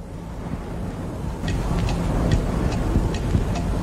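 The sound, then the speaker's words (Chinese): A wristwatch ticks in a steady, even rhythm, about six light, crisp clicks starting partway through, sitting over a constant low rumbling background hum. No one speaks. “干嘛看你手表啊？ 只要一分钟。”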